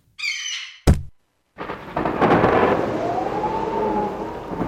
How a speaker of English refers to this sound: I mean, imagine you're on the savannah 100,000 years ago and you find a dead bird, then a terrible storm comes along.